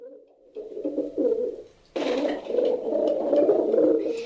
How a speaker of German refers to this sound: Tauben, Tauben.